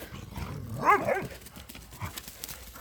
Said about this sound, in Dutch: En ik heb hier drie honden die met elkaar in gevecht zijn. Om te kijken wie de sterkste is. Dat hebben ze nodig, dat is een behoefte. En dat doen ze niet door elkaar de oren af te bijten, maar spelletjes te spelen.